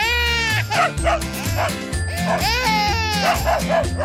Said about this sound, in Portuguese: O meu cão, até se habituar, ladrava assustado com tanta choradeira.